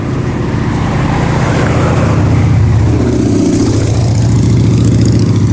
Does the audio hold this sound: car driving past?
yes